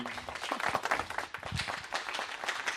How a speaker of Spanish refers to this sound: Primero con poco. A ver, a ver, con poco público, por favor, unos cuantos aplausos.